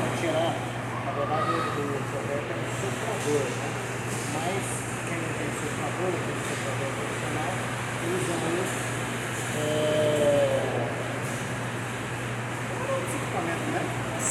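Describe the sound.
A hair dryer runs steadily for the whole stretch, a constant airy whoosh over a low electrical hum, with faint voices briefly audible underneath.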